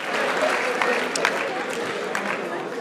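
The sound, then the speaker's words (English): A radio show's audience applauds a volunteer's bravery for a few seconds, a dense wash of many hands clapping at an even loudness with a few sharper claps standing out. “but let's have a round of applause for the bravery.”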